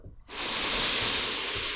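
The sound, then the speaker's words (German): A loud breath rushes into the microphone, a steady hissing exhale that starts abruptly and holds for well over a second with no talking. “Was war das mit dem Atmen jetzt?”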